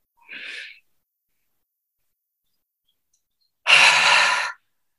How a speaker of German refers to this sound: Stellt euch vor, mit der Ausatmung haucht ihr einen Spiegel an und atmet so lange aus, bis ihr dann das nächste Mal wieder einatmen möchtet.